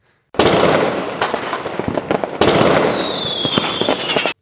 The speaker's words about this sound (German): Damit ein Feuerwerk für Olli.